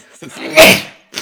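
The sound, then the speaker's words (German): A single sneeze, fairly loud, with a short breathy build-up leading into one sharp explosive burst, followed by a brief voiced sound. “das, ist, schwierig, Gesundheit.”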